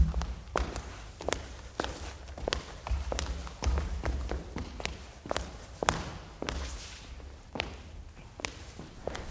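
Steady footsteps of a commander walking along a hard corridor floor through transporter number 1, a ship of the Exode, on the way to a meeting. Each step is a sharp tap in an even rhythm over a low, constant background hum.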